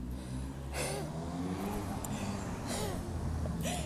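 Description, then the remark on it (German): A car engine rumbles on a street in Cologne, revving in several rising surges as the vehicle speeds up, arrives and pulls in to park, with a steady low drone throughout. “Da kommt schon der nächste Prollo mit seinem, weiß ich nicht was, angedüst.”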